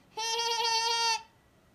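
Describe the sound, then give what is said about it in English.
A person imitates a goat's bleat: one sustained, slightly wavering nasal 'meh' lasting about a second, fairly loud, with no other talking. “that sounds more like a goat.”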